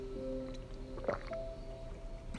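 Someone takes a quiet sip of water, with a single soft gulp near the middle, over a faint steady background hum and no talking.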